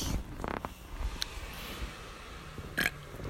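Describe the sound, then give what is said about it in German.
A long, gravelly burp rumbling low for a few seconds with a couple of sharper bursts, and no talking. “Oh, da habe ich gerülpst, mein Freund.”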